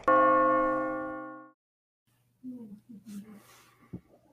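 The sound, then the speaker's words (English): A clock striking twelve: a single resonant chime strikes loudly and rings out, fading over about a second and a half before a man begins speaking. “You know when the clock strikes 12 that Midnight Mania Sports hosted by … and … starts right now.”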